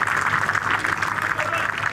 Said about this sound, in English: So stay out and watch golf, and applaud and encourage, and these conditions. That's a golf fan for you.